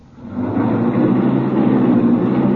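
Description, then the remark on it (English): A car engine roars up abruptly and holds a loud, steady, rumbling drone as the car speeds away at 50 miles an hour without being shifted into high gear, with no voices. “We're going 50 miles an hour, and I haven't shifted into high.”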